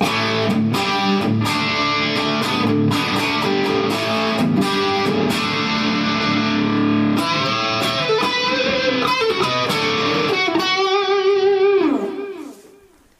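A distorted electric guitar with a lacquered wooden body plays loud, dense chords with sharp rhythmic attacks, then shifts to sustained bending notes before ringing out and fading at the end. No one speaks.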